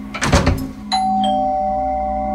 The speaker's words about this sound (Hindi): तो डोरबेल बजी इतनी रात को कौन आया सोच के आई होल से झाका